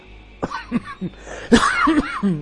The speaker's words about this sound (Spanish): perdón, pero es la tos que no me deja.